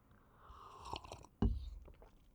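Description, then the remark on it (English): Someone takes a swig of wine: soft wet mouth and sipping noises, then a sudden, louder gulping swallow with a low thump that fades out. “Now I'll take a swig of wine.”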